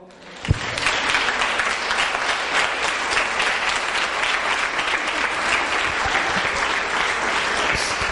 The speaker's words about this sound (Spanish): ¿Le voy a dar un aplauso a Dios, por favor?